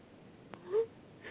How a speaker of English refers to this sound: And I think you probably heard that. That little whoop means that it indeed sent the message.